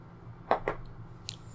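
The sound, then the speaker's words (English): Two quick wet slurping sips of tea, short breathy bursts a moment apart, followed by a faint high click, all quiet against a low steady hum. “That was me sipping my tea, if you didn't realize that.”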